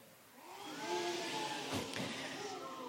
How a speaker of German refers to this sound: Den drei Mega-Hobby-Detektiven fröstelt es. Ein kalter Wind zieht auf.